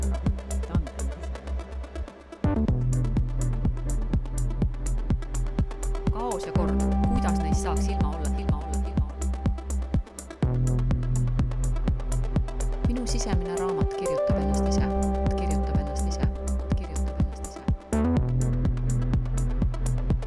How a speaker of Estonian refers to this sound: laseks korra ühe mängulise muusikapausi vahele ja, ja tuleks selle mõtte juurde tagasi peale pausi.